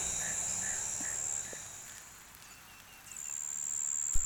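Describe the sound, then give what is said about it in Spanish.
A nighttime insect chorus by a river, steady high-pitched buzzing and trilling droning continuously, easing slightly midway before swelling again, with a faint click near the end. “ya pasó el periodo, o sea, el coro de los pájaros. Y no quedan sino insectos y ranas.”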